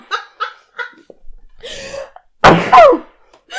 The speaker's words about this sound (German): Oh, ich muss niesen. Oh. Ja. Oh.